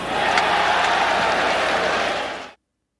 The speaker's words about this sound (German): Ja, das kann ja eigentlich, also der Kommentator reagiert überhaupt nicht. Es kommt aber Jubel im Hintergrund.